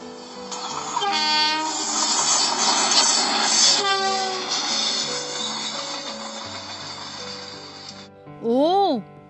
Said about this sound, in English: let's begin with this chuk chuk train